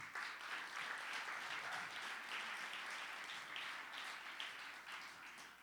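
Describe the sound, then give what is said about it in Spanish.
A crowd applauds steadily, a dense wash of many hands clapping at once that holds at an even, fairly loud level for several seconds without any voices. “Dele un aplauso fuerte.”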